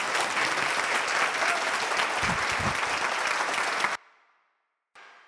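A crowd applauds in a steady, dense wash of clapping for about four seconds, then it cuts off abruptly into silence before a brief return of clapping at the end.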